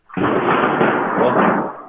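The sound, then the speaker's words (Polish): A sudden, loud thunder clap from a storm breaks into a deep, sustained rumble that rolls on for nearly two seconds at a steady intensity before fading slightly at the end, with no voices over it. “O, to była burza?”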